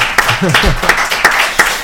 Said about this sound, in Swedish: Eh, otroligt, ge dem en sån här stor applåd. De har åkt hit bara för det här alltså. Bara för detta.